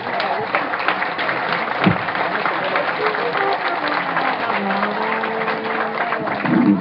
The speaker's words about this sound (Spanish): Y a nuestra reina, que ahí anda. Un aplauso a la reina de campesina.